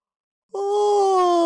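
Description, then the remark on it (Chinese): After a moment of silence, a voice gives the big, drawn-out yawn of the green monster in a children's story: a loud, steady vocal tone whose pitch sinks slowly as it stretches on, with no words spoken. “他打了一个大大的哈欠，不一会儿啊，就睡着了。”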